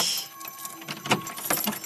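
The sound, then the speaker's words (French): A bunch of keys that opens all the doors jangles and clinks in short, bright metallic bursts, moderately loud, with no voices present. “Avec le trousseau de clés qui ouvre toutes les portes.”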